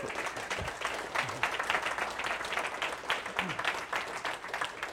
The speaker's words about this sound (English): keep clapping.